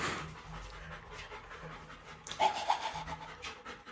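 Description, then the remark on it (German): A dog pants steadily, quick rhythmic breaths repeating throughout, with a brief louder rustle or shake partway through. “Das Hund hier.”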